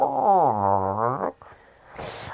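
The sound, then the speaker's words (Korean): A long, wavering gurgle of a stomach growl, rising and falling in pitch, followed by a rougher rumble and a brief breathy hiss, fairly loud with no talking. “아까부터 꼬르륵 하는 이상한 소리가 자꾸 들리네.”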